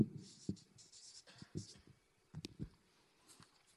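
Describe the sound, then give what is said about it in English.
Quiet scratching of a pen writing on a piece of paper, with short irregular strokes and taps over a few seconds and brief pauses between them. “that, and this that I've just written on the page was outside the barrel, outside the system.”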